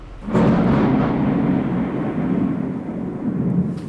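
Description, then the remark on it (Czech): A deep, sustained rumble of thunder rolls on for several seconds, loud, with a broad low roar that swells early and slowly fades, no voices present; a fierce thunderstorm over a high-rise housing estate in Prague. “kterou jedu navštívit do vysokého paneláku na pražském sídlišti za docela ukrutné bouřky.”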